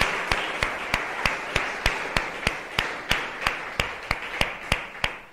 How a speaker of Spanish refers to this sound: Un, aplauso al Señor. Gloria a Dios por eso.